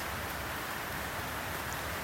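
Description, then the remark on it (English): Steady, soft patter of rain, a dense hiss of many small drops falling continuously on a surface, fairly quiet and even throughout with no voices. “Whereas as transient as these raindrops”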